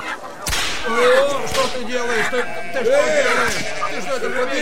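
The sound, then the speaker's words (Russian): A single sharp, loud crack of a whip made from ropes, used by Jesus to drive the animals (oxen, sheep and doves) out of the temple, snaps near the start, then gives way to a busy, continuous din of overlapping voices and animal-like cries. “Тогда Иисус, сделав бич из веревок, стал выгонять из храма всех животных.”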